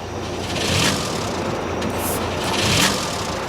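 An engine cranks in two labored, grinding bursts over steady mechanical noise but never catches and runs, because its spark plug has been taken out; moderately loud, with no voices.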